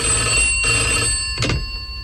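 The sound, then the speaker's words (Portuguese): An old-style telephone bell rings steadily and fairly loudly for a couple of seconds, its bright metallic trill sounding on its own with no voices. “No hospício um doido atende o telefone.”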